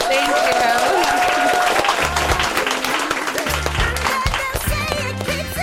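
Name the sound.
audience applause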